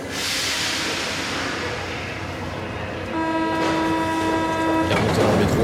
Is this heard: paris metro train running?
yes